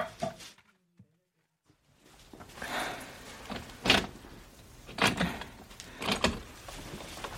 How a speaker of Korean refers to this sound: 냉장고 문이 열렸다 닫히고 쌀을 씻고 칼질을 하는 소리가 들려왔습니다.